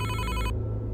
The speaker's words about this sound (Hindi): मेरा फ़ोन अभी भी बज रहा था और वहाँ उसके रोने की आवाज़ और मेरे फ़ोन की आवाज़ गूंज रही थी